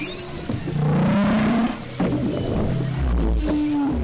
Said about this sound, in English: Scientists don't know why the composition of whale song evolves from season to season. They found a song can change completely over four to five years. On this journey, Darling hears what he believes are some new sounds.